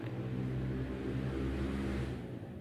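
A motorcycle engine revs loudly with a deep, steady rumble, dipping slightly as it moves past toward the end. No voices.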